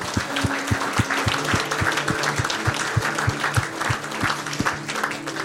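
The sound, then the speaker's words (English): An audience at a religious service breaks into sustained, loud applause to give the Lord a hand, a dense wash of many hands clapping at once, with a steady low rhythmic beat pulsing underneath the whole time. “and they shouted, can we give the Lord a hand? Come on.”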